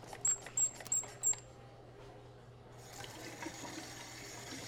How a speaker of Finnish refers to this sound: Se sylkee vettä.